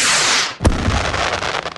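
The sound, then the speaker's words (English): A 4th of July firework goes off: a steady rushing hiss, then one loud bang with a deep boom, followed by a scattered crackling tail that slowly fades. “And now, 4th of July fireworks tips from the elderly.”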